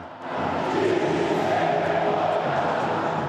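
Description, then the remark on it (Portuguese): A large crowd of Palmeiras football fans chants and shouts together in a sustained, dense roar, protesting against their own team after a 2-1 defeat to Grêmio; their massed voices are steady and loud throughout, sounding like an angry protest in a stadium. “Para os palmeirenses, restou protestar contra o time que, ao longo do campeonato, chegou a ter oito pontos de vantagem sobre o Flamengo.”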